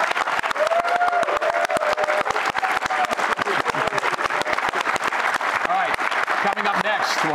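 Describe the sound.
An audience of BYU football fans bursts into sustained applause, dense rapid clapping that stays loud and steady for several seconds, with faint cheers and voices mixed in underneath.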